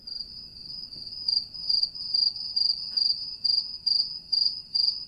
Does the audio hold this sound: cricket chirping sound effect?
yes